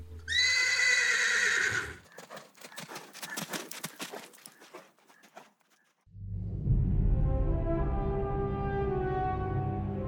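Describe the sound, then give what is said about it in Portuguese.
A loud, shrill whinny from a horse named Silver rings out, followed by a few seconds of clip-clopping hooves, then a deep, sustained droning tone fills the end. “É lógico que o meu cavalo se chama Silver.”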